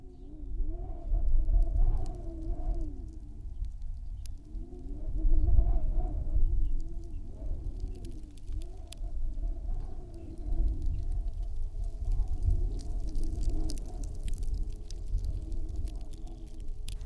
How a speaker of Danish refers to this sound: det som man hører her på um, The Lake-arbeidet uh, jeg uh, laget, um, det begynner med vind, rett og slett. Uh, og litt sånn knaking og spraking, så man nesten er litt usikker på om det er um, et bål, tror jeg kanskje folk vil tenke.